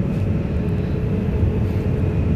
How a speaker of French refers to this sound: Du coup, cet épisode tourné dans l'avion 787-900 en direction de Paris. Un épisode rapide pour pas casser vos oreilles.